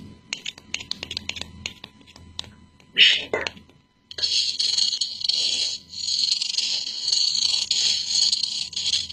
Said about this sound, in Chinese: 好，我们再测试一下刚才的木雕声，好吗？哦，这次回答的很快，是摩擦的声音哦。